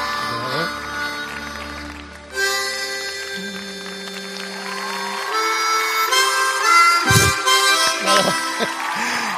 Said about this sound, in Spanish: qué bien toca la armónica.